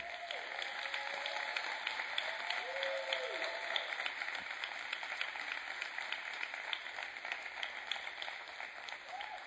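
A crowd applauds steadily for several seconds as a pastor and a woman join the speaker on stage, a dense, even patter of many hands clapping, with faint voices and a few whoops rising briefly under the applause near the start.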